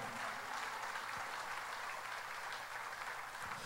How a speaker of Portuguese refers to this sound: Se é para o Senhor Jesus, aplauda, mas aplauda com força.